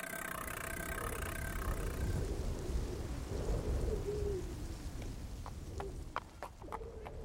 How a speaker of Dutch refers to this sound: Er is geen accordeon te horen. Wat je wel kan horen zijn paarden, varkens en kippen